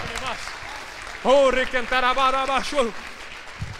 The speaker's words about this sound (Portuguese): Você que crê, aplauda o Senhor e se manifesta em nome de Jesus.